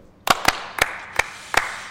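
A brief, sparse round of applause welcoming a guest: six sharp, crisp claps spaced unevenly over two seconds, each a bright snap with a quick decay, with no voices.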